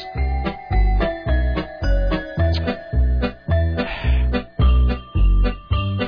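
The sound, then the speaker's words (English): A bouncy, festive novelty Christmas song intro plays on its own, with a steady thumping beat roughly twice a second, sustained chiming tones and bright jingling bells, loud. “But they're making you wait for the cats this time. You don't uh, you don't get them straight away.”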